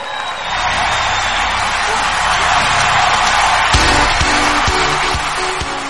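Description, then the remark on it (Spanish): An audience breaks into sustained applause and cheering to welcome the next speaker onto the stage, a dense, steady roar of clapping and shouts that holds at a loud level for several seconds with no pause. “nuestra próxima platina Lili Sánchez. Un fuerte aplauso.”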